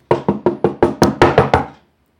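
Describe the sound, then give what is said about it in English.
A quick run of about eight firm, evenly spaced knocks, a simulated knock on a door, then silence. No voices. “Let's let's do a simulated knock.”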